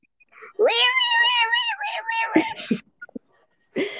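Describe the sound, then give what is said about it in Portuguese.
A voice imitates a fighting cat's caterwaul: one long, wavering, yowling wail held for about two seconds, fairly loud, followed by a few soft clicks and a short breathy noise. “Isso pareceu um gato brigando, mano.”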